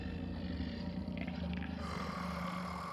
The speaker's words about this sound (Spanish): Agarré a mi hermana y comencé a caminar hacia la puerta, cuando el sonido de un gruñido gutural comenzó a emanar de todas partes.